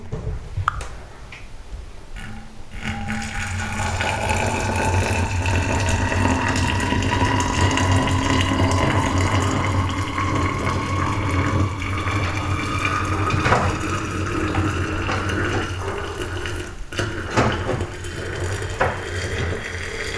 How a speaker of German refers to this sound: Ja, jetzt gießen wir erstmal das heiße Wasser rauf. Das heißt, jetzt müssen wir natürlich alles mit Vorsicht genießen.